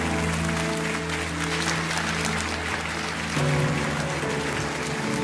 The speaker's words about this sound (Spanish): Si es un aplauso para Jesús, vale la pena.